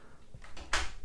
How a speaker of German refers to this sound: Und die Tür geht zu.